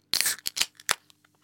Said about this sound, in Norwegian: Og mens du sitter der, så plukker du fram din foretrukne enhet, og spretter en påskepils.